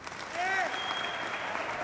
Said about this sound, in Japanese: 株主たちが歓声を上げる中、アイズナーはディズニー社長のボブ・アイガーに向き直る。